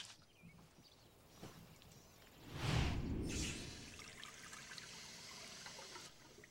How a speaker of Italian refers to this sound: Mettila nell'acqua con molta molta attenzione e tra un paio d'ore la porteremo in laboratorio per iniziare il processo di conservazione.